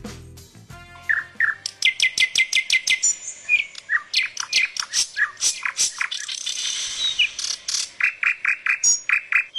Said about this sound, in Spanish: Canto de Sensontles.